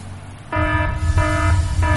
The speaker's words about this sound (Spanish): O sea, vamos a tener spoilers, pero vamos a tener una alarma de spoilers.